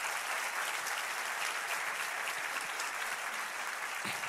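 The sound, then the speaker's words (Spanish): An audience applauds steadily in praise of Almighty God, a dense, even wash of many hands clapping at once that holds at a constant level throughout, with no voices rising above it. “Dale un aplauso a ese Dios todopoderoso.”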